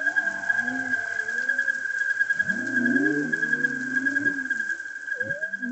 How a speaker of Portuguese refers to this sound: Esse barulho contínuo é o coro dos peixes. Lá no fundo, se você prestar atenção, você vai ouvir o canto langoroso da baleia jubarte.